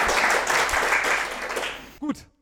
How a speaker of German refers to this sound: Heute nehmen wir aber die erste Irgendwas mit Recht Folge vor Publikum auf. Dürft ihr euch gerne mal bemerkbar machen. Applaus, jawohl.